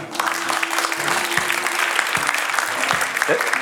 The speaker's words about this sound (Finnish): Ja sanotaan aplodit. Halleluja.